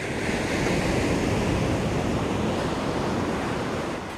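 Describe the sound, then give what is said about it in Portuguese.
Ocean waves break on the shore at Jardim do Mar, Madeira, in a steady, continuous roar of surf, fairly loud, with some wind noise and no voices. “As ondas de pitoresca freguesia cativam muitos surfistas ao longo do ano.”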